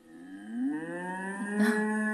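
A cow moos once in a long, drawn-out low call lasting about two seconds, its pitch rising slightly and swelling louder near the end, with no other sounds or voices.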